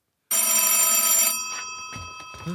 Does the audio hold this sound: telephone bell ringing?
yes